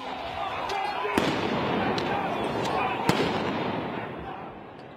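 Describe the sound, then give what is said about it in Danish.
A chaotic street clash in Washington D.C. as military police are deployed against demonstrators, with a dense roar of crowd noise punctuated by sharp, loud explosive bangs and scattered firecracker-like pops. “Det lød som en krig i Washington D.C. her i ugen, da militærpolitiet blev sat ind mod demonstranterne, som ellers var fredelige,”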